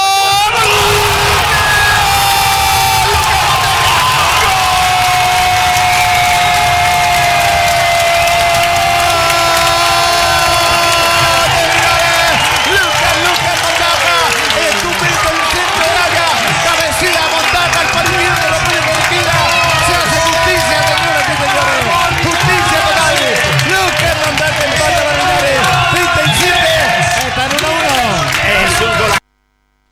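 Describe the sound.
A large crowd in a nearly full stadium roars and cheers loudly for about thirty seconds after a goal from an Aaron Araya corner kick, a dense continuous wall of shouting and screaming with excited voices rising throughout.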